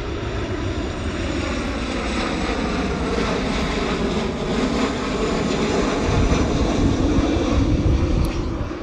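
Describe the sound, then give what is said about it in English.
A steady, loud engine roar of an airplane passing overhead, a broad rumbling drone that swells slightly toward the end, with no voices present. “Oh look, another plane.”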